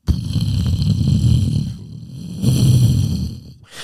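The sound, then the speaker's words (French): A volcano rumbles and boils, a deep churning roar with a steady venting hiss on top, swelling in two powerful surges with a brief dip between. “il y a un bruit, euh, on, sent que ça boue, mais euh, pas que ça. Tranquille. Pas que euh, ça. Ça boue, ça ventile, c'est très puissant.”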